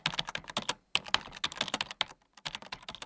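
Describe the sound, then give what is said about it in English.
Rapid keyboard typing, a dense, uneven run of crisp clicks and clacks with a few brief pauses, fairly quiet, with no voices. “began typing.”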